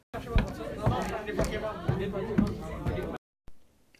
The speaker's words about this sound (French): Vous marchez dans la foule.